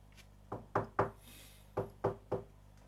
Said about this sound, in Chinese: 正想到这儿的时候，突然间有人敲门。